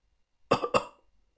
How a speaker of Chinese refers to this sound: 这个时候，门外放风的郑爷叔咳嗽了一声